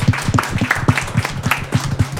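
Close, steady applause from a small group, the claps falling in quick, slightly uneven succession at a moderate level, with a faint murmur of voices underneath.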